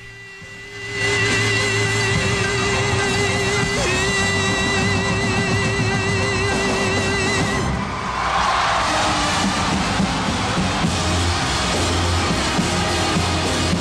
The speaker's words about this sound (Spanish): Qué bonito, hace cuánto que no se oye una ovación de de veras no de acarreados, no de, políticos, esas ovaciones de de veras, de, emoción.